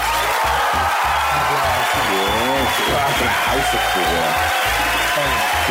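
Steady, dense applause from a crowd with scattered cheers and whoops, holding a loud, even level for several seconds without pause.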